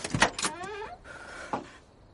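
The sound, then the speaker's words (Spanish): A pickup truck door opens: a sharp latch clunk, a brief mechanical whirring creak as it swings, then a final click after a short pause, with no talking. “Mira a Holly, triste, y abre la puerta.”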